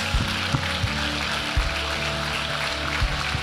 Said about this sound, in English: And then, last but not least, just give yourselves and give each other a pat on the back, a round of applause.